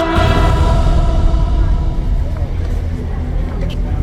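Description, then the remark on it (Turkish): Steady, loud traffic rumble from a main street in Ortaköy that is busy with traffic at every hour of the day, with engines droning and a murmur of indistinct voices underneath. “Bar günün her saati taşıt seliyle çalkalanan ana caddeden denize doğru uzanan dar sokaklardan birinde yer alıyor.”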